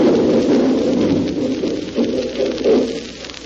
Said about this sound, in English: Uh, there comes the boulder now